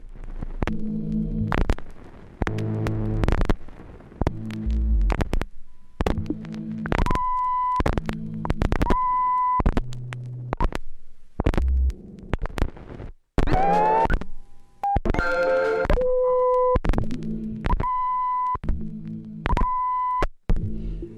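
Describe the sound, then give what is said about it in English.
Several cracked vinyl records, broken roughly in half and stacked on a turntable during a live performance, play at once, their fragments skipping and looping in a choppy, repeating rhythm, with steady humming tones and a brief warbling pitch slide partway through. “Maria will continue like that, layering records to build sonic works that are governed by chance”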